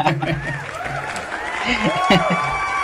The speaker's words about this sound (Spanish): Fuerte el aplauso.